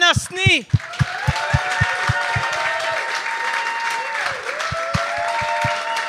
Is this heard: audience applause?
yes